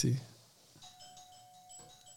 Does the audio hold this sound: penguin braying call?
no